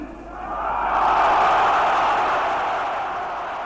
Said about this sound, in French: Vous avez entendu l'ampleur des applaudissements de la foule qui est composée pour l'essentiel de partisans de l'Algérie française.